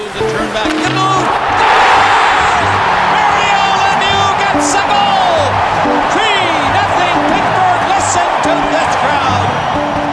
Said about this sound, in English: You have to feel the game, the breathing, the timing, and the sounds you're creating. When you get 20,000 plus roaring after a play, it's perfect.